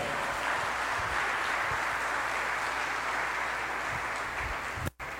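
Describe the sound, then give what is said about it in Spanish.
A crowd claps steadily in a dense, continuous wash of applause for the Lord for about five seconds, then it cuts off abruptly near the end. “Dele el aplauso al Señor y al Rey.”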